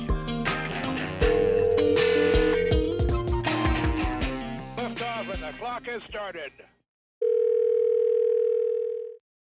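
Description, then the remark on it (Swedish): A single steady ringing tone of an outgoing phone call sounds clearly and fairly loud for about two seconds, following a short pause after dense, cluttered music and noise. “Karlsson ringer Karleby.”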